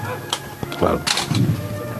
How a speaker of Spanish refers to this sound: Y se mezclan los sonidos de la UME con los de la banda de cornetas y tambores del Santísimo Cristo de las Tres Caídas, que será la banda que acompañe esta cofradía del polígono de San Pablo hasta la catedral.